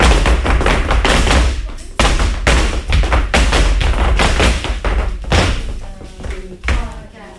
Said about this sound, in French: Ça me fait toujours euh, bizarre d'ouvrir cette porte. Je sais jamais en fait ce qu'on va trouver derrière.